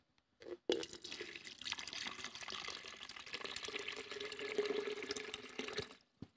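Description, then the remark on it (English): Water that has rocks in it pours steadily for several seconds from a container full to the brim, leaving the rocks behind: a continuous splashing, gurgling stream that starts abruptly and stops just as suddenly, with no voices. “But watch what happens when I pour this water that has rocks in it, but I leave the rocks behind.”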